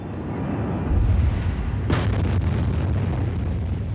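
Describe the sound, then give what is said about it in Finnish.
A deep rumbling boom followed about a second later by a sharp, powerful blast, then a long roaring reverberation: two large explosions in quick succession at the port of Beirut, Lebanon, set off by a fire of unknown cause. “Räjähdyksen, tai oikeastaan kaksi peräkkäistä räjähdystä, aiheutti tuulipalo, jonka syttymissyytä ei tiedetä.”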